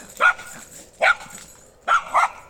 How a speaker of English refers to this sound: I can't think straight with your dog flipping out like that. Pixie. Pixie, sit. Pixie, sit. Sit, Pixie.